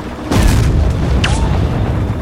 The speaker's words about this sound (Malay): Percikkan berbola api terhasil apabila bom terkena jalan menggegarkan jiwa.